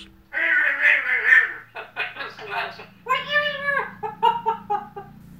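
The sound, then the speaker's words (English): A female pet talking bird chatters in a run of squawky, speech-like bursts, fairly loud, with brief pauses between phrases. “I have a bird, Mummy. She talks a lot.”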